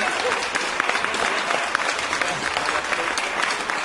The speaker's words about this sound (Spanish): Aplausos, maldita sea.